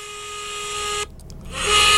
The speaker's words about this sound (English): you're going to have to go and get the first time listener siren, my friend, because we have got some first time listeners.